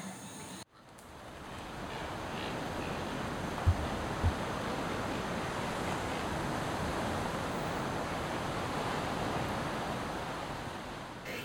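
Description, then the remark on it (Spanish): Steady roar of ocean surf filling the whole recording, a broad rushing wash with a couple of brief low thumps, no voices, after a short silent gap at the start. “Y es que el mar tan inmenso como poderoso, es a diario la oficina de los hombres que toman sus embarcaciones y se enfrentan a la adversidad de las olas.”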